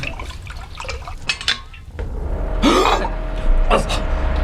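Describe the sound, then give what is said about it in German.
Tea is poured into a cup with a rising splashy fill, alongside light clinks of crockery and faint murmuring in the background. “Möchte vielleicht noch jemand einen Tee?”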